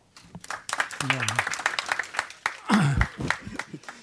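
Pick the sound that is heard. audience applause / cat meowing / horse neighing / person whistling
audience applause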